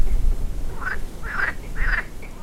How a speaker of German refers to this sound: Einige Flussbewohner kann man hören. Zum Beispiel die Seefrösche, die sich am Ufer im Schilf versteckt halten.